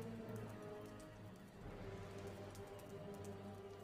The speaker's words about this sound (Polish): Słychać huk palącego się ogniska, parskanie koni.